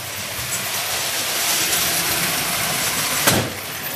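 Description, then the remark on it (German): A large model train locomotive with a cowcatcher whirs steadily along its track in a living room, its motor noise continuous, then a short clattering knock as it shoves an object lying on the track out of the way near the end. “Vorne hat sie, wie das Original im Wilden Westen, einen Kuhfänger dran, falls mal etwas auf dem Gleis liegen sollte.”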